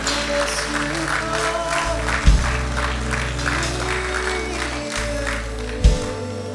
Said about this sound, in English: Come on, put your hands together for these people.